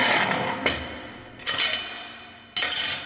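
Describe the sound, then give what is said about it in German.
Dishes clatter in a few sharp bursts, each clink ringing out into a long, roomy echo that lingers and slowly decays, with no voices present. “Wenn jetzt hier mit Geschirr klappert, hört man auch, wie viel vom Raum dann zurückkommt.”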